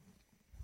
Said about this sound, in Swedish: Förlåt, jag sitter hemma och sänder radioprogrammet hemifrån. Det är min hund som skäller. Ah, okay. Hon undrar vad det är som låter i ah. bakgrunden.